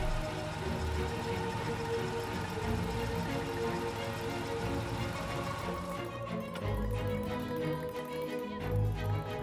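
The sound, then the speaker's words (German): The engine of a sparkling Rover car rumbles steadily at low pitch as it rolls slowly onto a restaurant parking lot, with a faint crunch of tires; the sound shifts and the engine settles near the end. “Er rollt ein funkelnder Rover auf den Parkplatz des legendären Restaurants La Pyramide”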